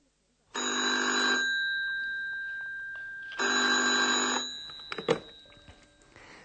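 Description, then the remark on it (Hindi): A telephone rings twice with a steady electronic trill, each ring lasting about a second, followed by a click as the receiver is picked up at the reception of Hotel Europa, and faint handling noise. “इन सवालों को ध्यान में रखते हुए लीजिए सुनिए टेलीफोन वार्तालाप”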